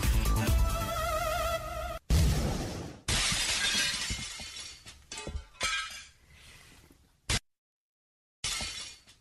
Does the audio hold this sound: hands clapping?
no